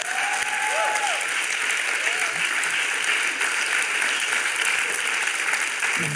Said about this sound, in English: Let's give the interns a round of applause.